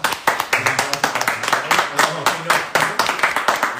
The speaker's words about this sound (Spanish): Entonces, eh, les agradecemos mucho y un aplauso a todos los que han estado aquí.